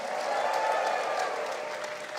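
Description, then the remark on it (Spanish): A church crowd lets out a sustained roar of joyful shouts and cheers to the Lord mixed with clapping, a dense, steady wash of noise that holds loud for a couple of seconds without any single voice standing out. “Dale un fuerte grito de júbilo al Señor”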